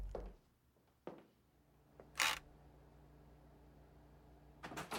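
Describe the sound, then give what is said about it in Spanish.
A hotel room door being opened: a few sharp mechanical clicks from a latch and handle, a brief rattling burst, then more clicks, with a low steady hum. “La puerta se abre y me atraes hacia vos”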